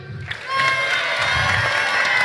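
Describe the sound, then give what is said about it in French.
A crowd breaks into sustained applause mixed with cheering and shouts, starting after a brief quieter moment and staying loud and dense through to the end; the audience applauds on the cue word "voiture" as a test. “Dès que je dirai voiture, ça veut dire que les trois minutes seront écoulées et il faudra applaudir”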